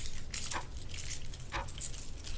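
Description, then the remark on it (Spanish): Keys jangle as a woman pulls them out of a lined leather purse, a few short bursts of soft metallic jingling over a low background rumble, with no one speaking. “El sonido de las llaves surgiendo de esa cueva de cuero y forros me anuncia mi siguiente movimiento.”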